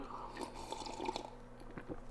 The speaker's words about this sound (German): So, jetzt brauche ich noch mal kurz ein Schlückchen zum Wohl.